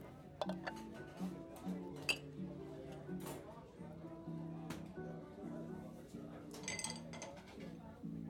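Café ambience: dishes and cutlery clink sporadically, with several sharp chimes, over sustained jazz music playing in the café and a low murmur of indistinct chatter throughout.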